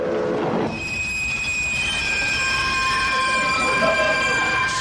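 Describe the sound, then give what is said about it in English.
A train rolls into a station with a steady, high metallic squeal from its wheels over a loud, continuous rumble, sustained throughout. “As this train just pulled into the station.”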